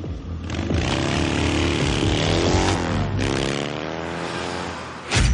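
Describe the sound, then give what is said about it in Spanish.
A motorcycle engine roars loudly as a helmeted rider starts it and speeds away from a hospital at full speed, revving with rising whines as it accelerates, the strained mechanical drone holding steady before a sharp burst of noise at the end. “que ya sentado en la moto y con el casco puesto, guarda la tablet en una mochila, arranca la moto y se aleja del hospital a toda velocidad.”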